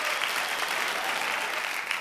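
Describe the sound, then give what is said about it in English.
Steady applause greeting a guest coming onto the show Epic Real Estate Investing, filling the whole two seconds, a dense, even wash of many hands clapping at a fairly loud level with no voices over it. “So that's uh, two guests in a row that have applauded themselves coming on.”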